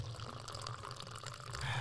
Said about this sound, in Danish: Lyden af kaffe, frisk brygget fra præstegården.